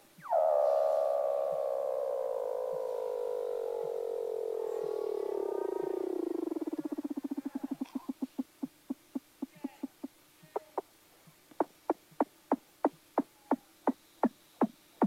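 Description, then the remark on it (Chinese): Weddell seal calls underwater: an eerie descending whistle glides from high to low over about seven seconds, then breaks into a rapid series of sharp pulsed clicks and chirps, with no talk. “我这有一段录音，如果您没有听过这个威德尔海豹的声音的话，你听起来觉得可能自己到了外太空。”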